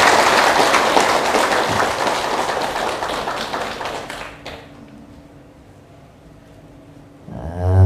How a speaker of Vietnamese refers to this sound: thì xin tất cả chúng ta hãy cùng dâng cao tràng vỗ tay để phát nguyện này